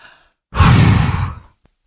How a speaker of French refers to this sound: Et puis, si on veut bien s'intérioriser, en prenant une grande respiration